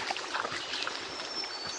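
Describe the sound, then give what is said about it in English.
A small stream flows steadily at a stream crossing, a broad, even rush of water with faint bright trickles and splashes mixed in, holding at a constant moderate level with no voices. “Okay, we got a small stream crossing here.”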